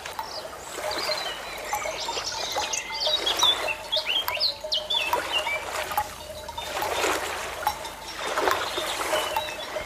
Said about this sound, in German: Let's begin with 8 minutes selective attention. Focus on the sound of the waves. No other sounds, thoughts or feelings matter right now. Focus all your attention on the waves.